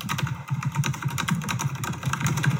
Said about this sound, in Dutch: En in het archief zitten allerlei verschillende geluiden. Dus bijvoorbeeld het geluid van eh, tikken op een toetsenbord.